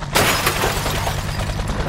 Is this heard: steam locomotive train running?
no